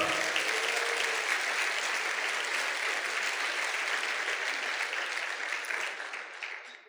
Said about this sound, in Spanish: Dale un fuerte aplauso allá al Señor.